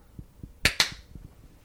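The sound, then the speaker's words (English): Two sharp, bright hand claps land a split second apart, like a single clap done slightly out of sync, over a faint low, rhythmic thumping in the background. “You get the infamous, clap. famous single clap.”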